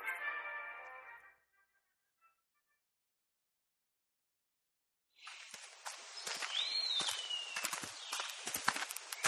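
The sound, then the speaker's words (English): Footsteps crunch steadily along a gravelly dirt hiking trail for several seconds, with a brief chirp among them, following a short tonal sound and a pause of silence. “That was a nice little hike. I do enjoy this trail.”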